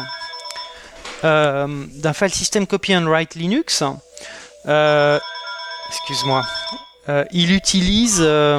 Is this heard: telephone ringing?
yes